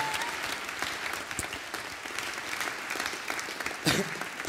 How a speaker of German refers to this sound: Lass uns Gott noch einen riesen Applaus geben.